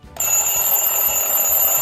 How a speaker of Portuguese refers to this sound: Vamos pro despertador? Vamos colocar o despertador para tocar aí, gente?